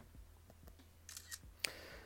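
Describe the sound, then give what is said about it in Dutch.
A smartphone camera shutter fires with a quick artificial click as a photo is taken by tapping twice with two fingers, preceded by soft taps and brief electronic chirps, clear over a quiet low hum with no talking. “Zelfs een foto maken kan ik door twee keer te tikken met twee vingers.”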